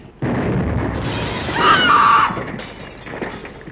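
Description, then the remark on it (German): A ticking time bomb hidden in a cigar box in a desk explodes: a loud explosive blast bursts in suddenly, followed by a spray of shattering glass and crashing debris that rings out and slowly tapers off, with no voices. “Sie muss gleich losgehen, wollte ich sagen.”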